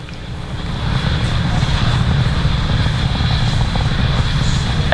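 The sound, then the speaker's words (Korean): Rocket engines roar at full power during a launch, coming back up to full power just after max Q: a dense, steady rumble that swells in the first second and then holds loud and unbroken, heavy in the low end with a hissing edge. “the engines are coming back up to full power 가동되었습니다.”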